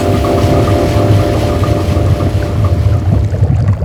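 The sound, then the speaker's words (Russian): A washing machine drum fills with water: a steady, loud rush of water over a low mechanical hum, continuous, with no voices. “Проснулся он от великого потопа вода стала заполнять барабан стиральной машины.”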